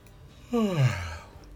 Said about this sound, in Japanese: おいあくびしてんじゃねえよバカ野郎してねえよバカ野郎